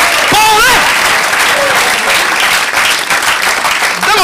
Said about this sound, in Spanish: un buen aplauso al Señor con ganas, hermano. ¡Ah, gloria a Dios!